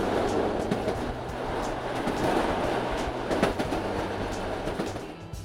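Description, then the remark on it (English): A passenger train traveling across America rumbles steadily along the rails, its broad low roar punctuated by faint rhythmic clicks of wheels over track joints, continuous throughout. “With his newfound wealth, Lamarcus decided it was time for vacation, so he got on a train to see America.”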